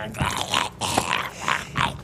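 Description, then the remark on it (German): A dog grumbles and growls in a short run of throaty, rising-and-falling bursts, moderately loud, with no one speaking over it. “Lieber nie wieder knurren, als dieses ekelhafte Zeug zu gurgeln?”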